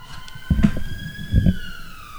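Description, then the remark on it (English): A police siren wails outside, a steady high tone that slowly dips in pitch as it passes, with a couple of dull low thumps. “Fucking low jack.”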